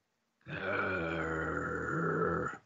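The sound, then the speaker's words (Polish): A girl growls like a dog in one sustained, rough, guttural rumble lasting about two seconds, loud, with no other talking. “Słuchaj, dziewczyna, dziewczyna za ciebie, zaczyna na ciebie warczyć jak pies.”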